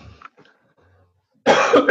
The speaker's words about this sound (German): Entschuldigung, vor lauter Corona muss ich schon husten.